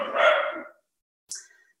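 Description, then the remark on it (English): Rescue dogs barking downstairs: a single loud, rough bark rings out, followed by a brief pause and a sharper, higher yelp that fades quickly. “Those are my four rescue dogs downstairs who don't not bark at stuff.”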